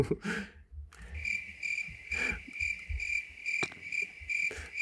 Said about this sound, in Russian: у нас будет очень много сверчков в этом выпуске.